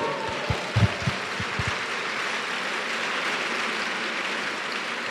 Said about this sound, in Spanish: Dale un aplauso al Señor.